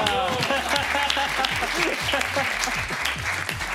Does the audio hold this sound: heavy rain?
no